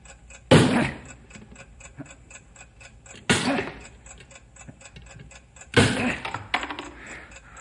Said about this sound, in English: now, now the timing device is in between the chemical chamber and the explosive. You've got to drive that wedge in there and stop that ticking.